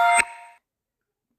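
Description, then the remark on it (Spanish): A phone notification chime sounds once, a bright, tonal ding that rings briefly and fades within half a second, followed by silence before a voice starts at the very end. “perdón, eso fue mi celular.”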